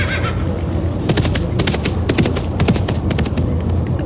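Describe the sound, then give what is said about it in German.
Horses gallop across a meadow with a rapid, uneven clatter of hooves, broken by a sharp whinny, all over a steady low rumble of background noise. “Auf dem Weg sehen sie Kühe und auch Pferde, die auf der Wiese galoppieren.”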